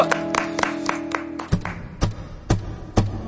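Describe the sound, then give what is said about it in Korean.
Sharp, evenly spaced hand claps over a music intro, quick at first, then slowing to a steady beat about twice a second as sustained tones drop out. No one speaks. “자, 박수로 전해 듣습니다.”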